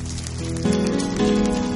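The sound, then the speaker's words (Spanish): A church audience at Casa Oración applauds in a steady, dense wash of clapping as a tribute of condolence to the family of a worship leader who died of cancer, with sustained keyboard chords shifting underneath and swelling slightly louder partway through. “Démosle un aplauso de un pésame a toda la familia que ya partió con el Señor.”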